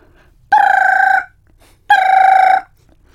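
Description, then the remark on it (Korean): A mobile phone rings twice, each ring a loud, steady electronic tone lasting under a second, separated by a short pause, with no voices. “염려사의 휴대전화가 울렸다.”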